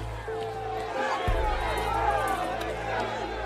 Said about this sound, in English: At Tanner's Close, a crowd of people gathers outside Hare's lodging house, the scene of so many deaths.